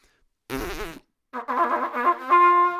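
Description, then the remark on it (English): A person buzzes their lips in two bursts, a short wobbly blat followed by a longer, unsteady brassy tone that wavers in pitch before settling, like a novice trumpet player. “You sound like a, every grade seven yes. beginner trumpet player.”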